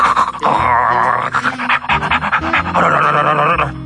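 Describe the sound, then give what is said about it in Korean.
A large dog pants heavily and rapidly, loud, with rough rhythmic breaths and a few strained, whiny edges running through the nearly four seconds. “진짜 개가 물어간 거 아니야? 아주 큰 개가 막 입에 이걸 물고 크 뛰고 있는 거.”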